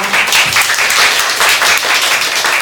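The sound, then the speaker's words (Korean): An audience applauds the lecturer at the end of a talk, many hands clapping in a dense, crackling wash that stays loud and even throughout, with no one speaking. “좋은 얘기를 들려주신 강연자님께 다시 한번 큰 박수 부탁드립니다.”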